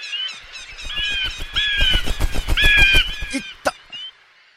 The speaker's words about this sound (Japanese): 住宅街に鳥が集まってきました。無数の鳥が僕を囲っていた。